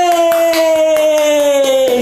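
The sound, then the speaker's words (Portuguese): Rhythmic applause-like clapping, about a dozen sharp claps at a steady pace, heard alongside a loud sustained tone that glides slowly downward in pitch throughout, during a live Instagram broadcast of Meu Clube do Inglês. “Thank you, thank you, muito obrigado pelos aplausos.”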